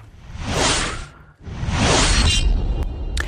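Two fast sword swooshes, Zorro slashing a Z, cut through the air one after another with a brief gap, each a loud, airy swish with a bright edge and a faint metallic ring at the end.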